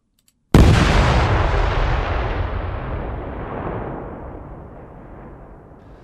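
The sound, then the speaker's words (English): A single heavy explosion of ANFO with a Eurodyn dynamite blow charge bursts in abruptly after a brief silence, then a dense rumbling roar slowly decays over several seconds with no voices present. “And this is what they describe as the character element.”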